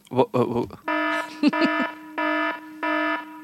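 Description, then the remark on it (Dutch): A brief burst of speech gives way to a loud, harsh electronic alarm sound effect, signalling that a difficult word was used, buzzing in several repeated blasts, each a steady buzzy tone separated by short gaps. “Deze podcast, als je het alarm hoort, betekent het dat je een heel moeilijk woord hebt gebruikt.”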